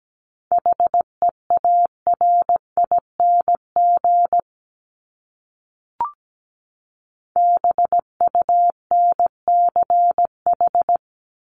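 Morse code tones at 17 wpm sending common English words from the 1751-2000 range of a top words list: a single steady mid-pitched beep keyed into short and long pulses, two bursts of characters separated by a pause broken by one soft click. No talking.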